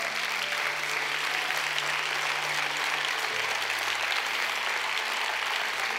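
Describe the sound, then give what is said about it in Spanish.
An audience applauds Jesus Christ loudly and steadily, a dense wash of many hands clapping at once, with a faint sustained musical tone lingering underneath. “Vamos a ese lo dar, fuerte a Jesucristo.”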